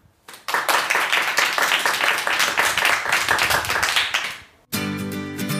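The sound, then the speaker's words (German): An audience claps in a dense, steady burst for about four seconds, many hands overlapping into a loud crackling wash, then it cuts off abruptly as music begins. “Ihr dürft euch nochmal klatschen.”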